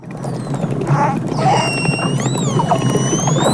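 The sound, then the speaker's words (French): Dolphin whistles rise and fall in long, high-pitched sweeping tones over a steady underwater hiss, with a scatter of rapid clicks running through the whole stretch. “Dauphin Le dauphin. Ah, très bonne réponse”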